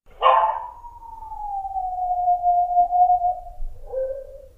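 A dog lets out a long, mournful howl that starts with a sharp yelp, holds a steady pitch while slowly sliding lower, then ends with a shorter, lower wail. No one speaks.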